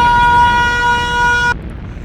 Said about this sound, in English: I fucking hate that siren because I listened to this podcast in my car, and you got to turn it up in the mm-hmm. car, right?